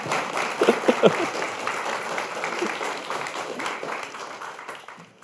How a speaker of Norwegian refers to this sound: men det er, det er altså Herbjørg Wassmo, dette her. og hun tåler en applaus til.